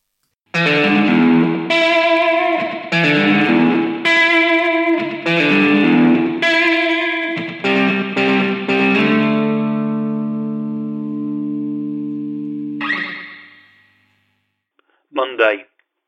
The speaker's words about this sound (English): Let's have a bit of twangy guitar. Let's start with a piece of audio you have heard before, and then I'll try and explain what's been going on.